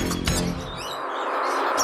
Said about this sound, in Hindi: चारों तरफ जानवरों की चीख पुकार मच गई सांप बिच्छू सियार लोमड़ी हाथी घोड़े सभी उस झुंड में शामिल होकर भागने लगे